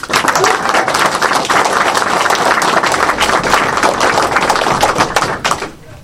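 Sustained, dense applause from a sizable audience, many hands clapping steadily and loudly for several seconds before tapering off at the end.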